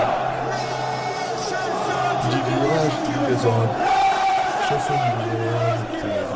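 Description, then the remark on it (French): A packed stadium stand chants in unison, a loud, continuous wall of many voices holding sung notes that rise and shift in pitch over a roaring crowd bed. “On commet quand le virage se met à chanter.”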